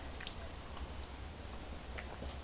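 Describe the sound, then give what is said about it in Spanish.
A quiet sip of bitter coffee, a Wednesday coffee: a couple of soft, brief slurping and mouth clicks over a low steady hum, with no talking. “Así que me voy a dar este sorbito amargo y siempre, siempre necesario.”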